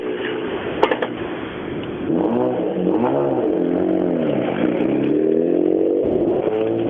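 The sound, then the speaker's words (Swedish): A rally car, one of the cars in the new Group H, roars loudly, its engine pitch climbing and dropping repeatedly as it revs through gear changes, with a sharp clatter early on before the engine noise swells. “En av bilarna i nya Grupp H.”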